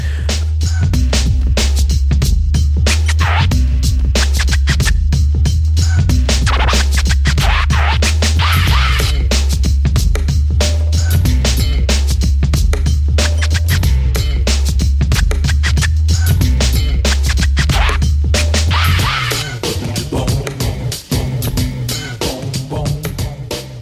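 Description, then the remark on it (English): Loud, driving instrumental music in the style of video game music, with a pulsing bass line and busy, rapid percussion, playing continuously before thinning out near the end. No voices. “So stick around, listen to this great video game music.”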